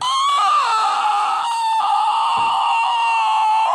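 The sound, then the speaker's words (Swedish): A person does a loud, sustained, strained vocal imitation of a fox, a shrill wavering cry that holds steady for several seconds. “Jag kan låta som en räv.”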